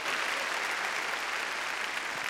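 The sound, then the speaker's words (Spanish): An audience claps loudly and steadily for Jehovah of hosts. The clapping is a dense, continuous wash of many hands with no single claps standing out, sustained at an even level for the whole stretch. “Grande nuestro Dios, démosle palmas fuertes a Jehová de los ejércitos.”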